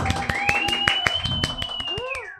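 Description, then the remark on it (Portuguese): Steady, rhythmic clapping at a quick even pace, loud, welcoming a guest onto a show, with a high sustained whistling tone gliding over it before the claps fade out. “Uma salva de palmas.”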